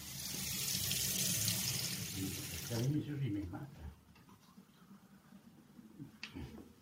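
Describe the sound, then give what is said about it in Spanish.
A tap runs in a steady hiss for about three seconds, then shuts off, leaving quieter background noise with faint voices and a brief clink near the end. “Es que echarle agüita.”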